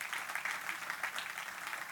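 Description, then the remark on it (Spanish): A crowd applauds the Lord steadily for two seconds, a dense, even wash of many hands clapping at once, with no single claps standing out and no voices on top. “Le un aplauso al Señor en esta hora.”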